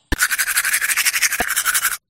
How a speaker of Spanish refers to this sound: creemos que es el sonido del cepillo de dientes al lavarte los dientes